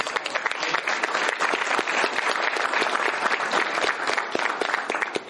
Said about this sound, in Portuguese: Então eu gostaria de uma salva de palmas para as